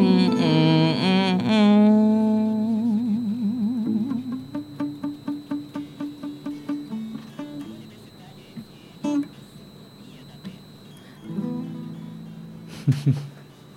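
An electronic interlude version of a song: wavering, voice-like synth tones open it, then a steady run of rapid pulsing notes, sparse held tones, and a brief louder burst near the end.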